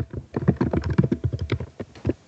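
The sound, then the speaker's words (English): Rapid typing on a computer keyboard as a man looks something up on Google, a steady patter of many quick keystrokes with brief pauses between bursts, and no one talking. “He's Googling it. I hear him typing.”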